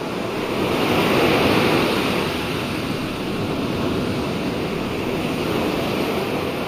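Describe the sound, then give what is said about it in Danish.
Continuous ocean surf washes in a steady, broad roar with slight swells in loudness, sounding full, with a windy hiss on top and no voices. “Det er videoer med timevis af lyde fra havet, eller skoven, snestorm og så meget andet.”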